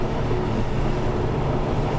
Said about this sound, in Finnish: Juna ohitti punaisen opastimen hiljentämättä tai reagoimatta siihen muutenkaan.